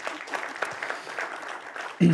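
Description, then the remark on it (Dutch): An audience claps to thank the speakers for a couple of seconds, a dense steady patter of many hands, before a voice cuts in loudly at the end. “Applaus.”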